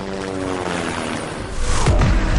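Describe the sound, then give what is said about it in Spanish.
A helicopter's steady rotor drone and engine whine grow louder, swelling into a heavy, thumping roar in the final second as it passes overhead. No voices. “Le pedimos un ride en helicóptero a Flavino Ríos y regresamos a políticamente incorrecto.”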